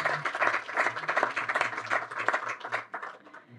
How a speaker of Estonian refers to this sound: teeme aplausi, väga hea mõte.